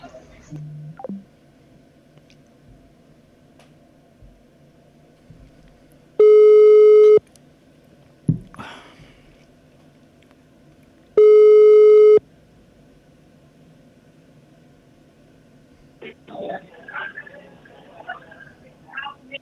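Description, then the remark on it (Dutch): Two long, loud electronic telephone call tones while dialing a regular phone, about five seconds apart, each a steady pitched beep lasting roughly a second, with faint background murmur and rustling between them. “misschien moet je me op mijn normale telefoon dan nu bellen.”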